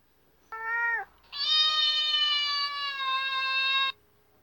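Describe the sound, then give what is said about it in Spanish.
A cat meows twice: a short cry followed by a long, drawn-out, insistent meow lasting over two seconds, loud with no voices. “Y al llegar a su casa y al abrir la puerta, lo estaba esperando el gato.”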